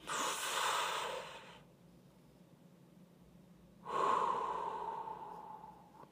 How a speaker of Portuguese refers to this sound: feche os olhos e respire profundamente